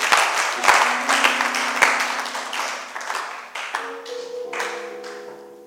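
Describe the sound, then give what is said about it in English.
An audience applauds for several seconds as a clap offering to the Lord Jesus while taking their seats, a dense, steady wash of many hands clapping at even loudness, with sustained low musical notes holding underneath and shifting to a higher chord partway through. “Why don't you take your seats with a clap offering to the Lord Jesus?”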